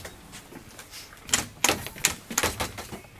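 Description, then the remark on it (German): A door opens and closes as people go out through it, with a handful of sharp clicks and clattering knocks in an uneven sequence against faint background hiss. No one speaks. “Okay, wir müssen mal kurz da wieder rausgehen durch die Tür.”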